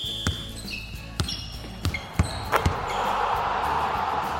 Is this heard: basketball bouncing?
yes